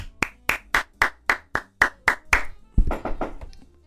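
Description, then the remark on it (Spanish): Nine sharp, evenly spaced hand claps in a steady rhythm give way to a short burst of denser, overlapping applause, as if several people join in, applauding a new sponsor. No voices are heard. “Un fuerte aplauso para oh, nuestro nuevo auspiciador.”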